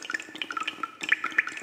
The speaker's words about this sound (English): Ooh, I love the sound of rain falling down.